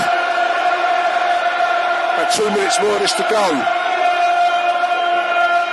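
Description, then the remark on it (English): A big football stadium crowd at a Millwall match roars steadily, swelling midway into a burst of rising shouts and cheers before settling back as the ball is played forward. A commentator talks over the noise. “Crowd starting to believe.”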